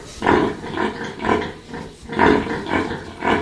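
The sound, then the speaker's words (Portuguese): Several pigs on a farm grunt and snort repeatedly, a steady rhythmic stream of low, throaty oinks overlapping one another with no talking. “Mas ir aqui, passear aqui neste, neste espaço, já ouve o som deles.”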